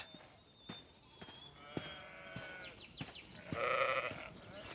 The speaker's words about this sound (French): Ah Mais poussez-vous, il y a des moutons partout ici Ah, mais quelle odeur